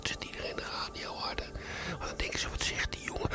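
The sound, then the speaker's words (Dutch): A man whispers a radio jingle steadily, breathy and hushed throughout, with soft hissing consonants and no voiced speech. “En dan deed ik ook wel eens jingles, die moest ik dan doen. En die ging dan fluisteren.”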